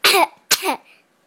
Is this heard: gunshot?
no